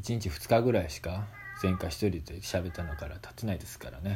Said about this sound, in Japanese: えー、ね、まあ今日も変わらず、まあ、猫がね泣いたりしながらそういう部屋でね撮ってますんで猫の鳴き声入ってるかもしれないですけども